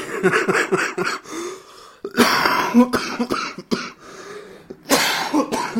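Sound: coughing and throat clearing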